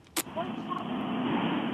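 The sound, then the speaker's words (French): Steady, muffled road rumble from inside a moving car, heard through a thin telephone line, with a sharp click near the start and no clear speech. “si vous êtes en voiture, essayez de vous arrêter, ce sera beaucoup plus pratique pour.”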